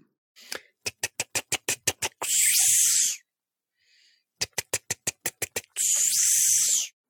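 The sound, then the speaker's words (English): A voice imitates the song of a Cassini periodical cicada: a quick run of about eight sharp ticks followed by a loud, hissing buzz lasting about a second, repeated twice. “it isn't just one kind of cicada singing, but it's three different songs from three different cicada species”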